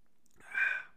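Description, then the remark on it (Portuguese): A single breathy swallow-and-exhale after a quick sip of water, rising softly and fading within a second, with no talking. “beber mais uma água.”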